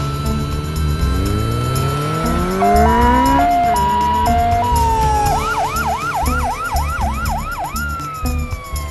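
An ambulance siren sounds loudly over a rising engine rumble, alternating two tones before switching to a rapid, repeating yelp. It seems to pass by, with no talking.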